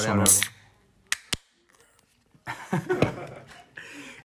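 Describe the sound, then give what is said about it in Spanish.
A drink can cracks open with two sharp snaps in quick succession, followed by a brief soft hiss, with voices and light laughter before and after. “O sea, abierto por ahí una lata, o sea. Yo me voy a abrir otra.”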